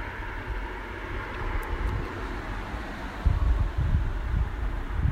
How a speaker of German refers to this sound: Es ist 5.43 Uhr und ich äh, sitze vor der Tür unseres Hauses ähm, und mir fällt nicht zum ersten Mal auf, wie unglaublich laut Autos sind